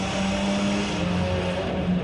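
A loud car exhaust drones with a steady, rumbling engine note that rises and holds, with no voices over it.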